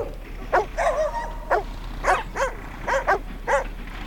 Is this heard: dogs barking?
yes